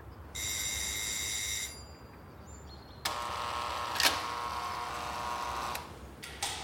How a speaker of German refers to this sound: Ich klingel also bei Holte.